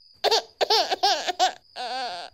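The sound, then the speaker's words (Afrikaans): A baby that has woken up again cries in several short, choppy bursts, then lets out one longer, steadier wail. The fussing is fairly loud, with no talking. “Maar die baba word weer wakker en begin huil.”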